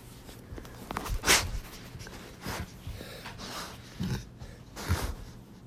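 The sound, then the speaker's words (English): A dog named Awesome, asked to say hi, lets out a handful of short, breathy snorts and huffs, spaced unevenly over a few seconds, with quiet background noise between them and no one talking. “He's a dog, and his name is actually Awesome.”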